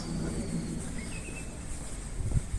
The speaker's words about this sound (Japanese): 昨日までと違う鳥の声がしますねなんだろう姿が見えないけど